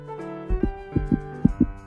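A child's heartbeat heard through a doctor's stethoscope during a checkup: soft, low paired thumps in a steady lub-dub rhythm, about three beats, over a faint continuous hum.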